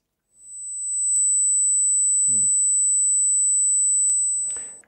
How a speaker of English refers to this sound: So that's an example of what a loud tinnitus sound can be. Now, typically the pitch of tinnitus is different for every person.